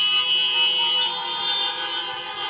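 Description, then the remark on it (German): A car horn honks in one long, unbroken blare, a bright, buzzy tone that holds steady and loud for the whole couple of seconds, with no one speaking. “Ich hätte nicht sagen hab, sollen, dass Hupen hab, wieder erlaubt ist.”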